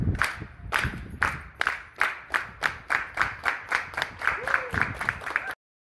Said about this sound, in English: Okay. Can we start? Get, get a clap up there. Oh, yeah.